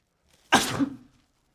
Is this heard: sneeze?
yes